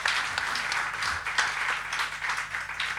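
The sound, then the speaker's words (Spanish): A crowd in a church applauds the church's sound technical team steadily, a dense wash of many hands clapping at an even, sustained level for the whole stretch, with no voices standing out. “Un aplauso para el equipo técnico de sonido.”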